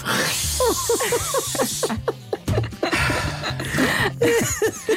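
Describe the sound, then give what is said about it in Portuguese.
A voice imitates a forceful hissing spray, the very loud stream of a woman urinating into a toilet, in two long sustained bursts with a brief break between, loud, with voiced vocal tones running underneath. “Continuava acordado com o mais alto som de jacto de urina que eu vi na minha vida.”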